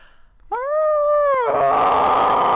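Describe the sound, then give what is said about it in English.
A wolf, coming up from behind about two to three hundred yards away, lets out a loud, sustained howl lasting about a second, then breaks abruptly into a harsh, raspy scream that continues to the end. “This third wolf comes up from behind us, and all you hear is like maybe th- two, three hundred yards.”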